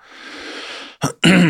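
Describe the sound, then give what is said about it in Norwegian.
A raspy throat clearing: a breathy rasp building for about a second, then two short harsh bursts, the last one louder and voiced. No speech. “Det er mye kremting her i episoden, jeg beklager det eh, for dere som lar dere irritere over det.”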